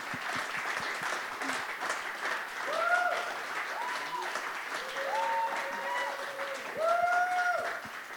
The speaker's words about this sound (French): Wow. Wow. Give him a clap. Applaudissez-le.